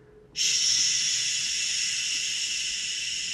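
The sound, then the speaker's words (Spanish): A voice imitates a steady, static-like hiss, the sound of an open bathroom sink tap running in a hotel room at night with the TV off. The hiss starts abruptly and holds for about three seconds, bright and breathy, with no talking alongside it. “Y la tele apagada, pero se oía como estática.”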